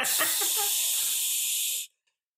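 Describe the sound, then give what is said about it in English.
A voice imitates the sizzling of corroding wires inside computers with a steady, loud hiss held for nearly two seconds before cutting off abruptly into silence. “You could see them sizzling.”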